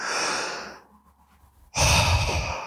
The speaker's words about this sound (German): So lange, bis der Körper sagt, ich atme einmal ein